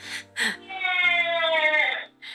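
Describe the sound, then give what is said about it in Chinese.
A baby's crying comes through a monitor: short breathy sobs, then a long, high, wavering wail that trails off, followed by another brief whimper. Thin, slightly harsh tone from the small speaker. “这是监视器传来的哭声，让大家体验一下我们的日常。”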